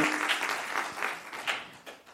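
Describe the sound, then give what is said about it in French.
An audience claps steadily for a couple of seconds after a team's presentation at a competition, a dense, crackling wash of applause that stays fairly even before tapering slightly at the end. “Merci Anthony pour cette présentation et on peut l'applaudir”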